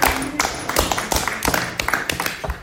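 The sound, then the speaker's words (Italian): A crowd applauding: dense, steady hand clapping with many sharp overlapping claps at an even, moderately loud level throughout, with no voices rising above it. “Ormai abbiamo l'applauso che parte.”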